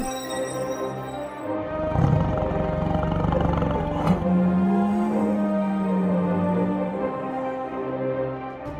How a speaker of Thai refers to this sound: เมื่อได้ยินเช่นนั้น ฝูงมดก็พากันถอยทับกลับไป ปล่อยให้เหล่าสิงโตนับสิบร้องโอดโอยอยู่ตรงนั้นนั่นเอง